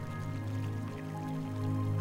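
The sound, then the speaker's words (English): A babbling brook near a forest clearing trickles and bubbles steadily throughout, soft and continuous, blended with a low, sustained musical drone in the background. “As you get closer, you can hear the sounds of a babbling brook.”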